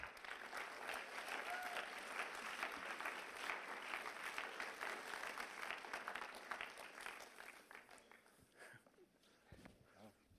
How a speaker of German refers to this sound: Für mich ist es ein Riesenprivileg, dass er so ehrlich erzählt und ich glaube, es ist für uns ein Riesenprivileg. Darum geben ihm einen grossen Applaus.